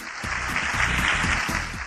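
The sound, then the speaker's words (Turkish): Steady applause from a group at the end of the quiz segment of the children's show Çocuk Parkı, for a contestant who answered 4 of 5 questions correctly: dense crackling claps filling the whole stretch at a consistent, fairly loud level with no voices on top. “Bıcır 5 sorudan 4'ünü doğru cevapladı ve kendisini alkışlıyoruz, bravo diyoruz, tebrik ediyoruz.”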